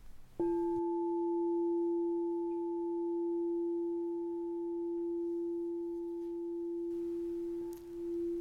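A crystal singing bowl rings with one pure, steady tone that starts sharply and holds at an even, moderate loudness for several seconds, with no voices present.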